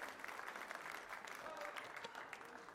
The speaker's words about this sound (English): Praise the Lord. Let's give Jesus a hand clap of praise this morning. He's worthy. He's worthy.